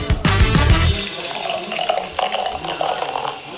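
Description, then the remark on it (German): A coffee machine runs: a brief deep rumbling burst at the start, then a steady hissing, gurgling stream of liquid pouring into a cup for several seconds. “Und pünktlich zur Kaffeemaschine kommen wir auch zu unserem dritten Podcast des heutigen Abends.”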